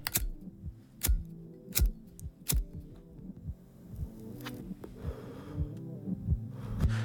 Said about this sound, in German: Jetzt hören wir ….